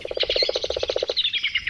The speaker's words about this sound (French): Le merle Il vient chercher à manger pour ses petits. Ils ont besoin de protéines animales à cet âge-là. Pour rattraper les vers de terre, il pique du bec dans la terre comme une poule